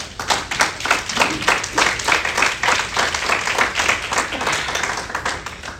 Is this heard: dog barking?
no